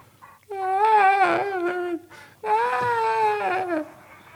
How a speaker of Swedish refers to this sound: Du hör någon som ja, låter som ett barn, inte yngre än tio år, börjar att snyfta och gråta förtvivlat.